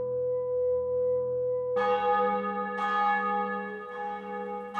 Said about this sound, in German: An einem Sonntagsmorgen, als die Glocken verklangen und unversehens die wohlige Stille dieser Stunde eintrat,